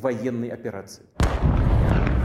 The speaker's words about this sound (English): Moments later, thunderous explosions echoed throughout the country. The Russians had launched airstrikes across the nation and ground offensives on multiple fronts.